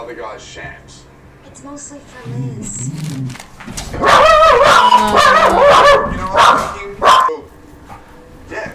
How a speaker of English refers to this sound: Dogs trying to bark.